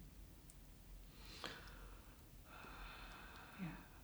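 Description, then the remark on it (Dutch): A drawn-out, breathy yawn, with a sharp intake of air followed by a longer airy exhale, ending in a soft low sigh. No one speaks. “gapen gebeurde er.”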